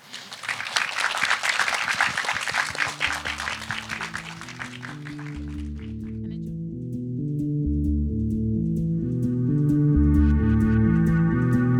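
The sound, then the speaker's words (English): An audience applauds the people on stage at the close of an evening event, with dense, steady clapping that fades out after about six seconds, as a rhythmic electronic music outro swells in and carries on alone. “Um, so, yeah, if we can thank everybody on the stage, that would be wonderful.”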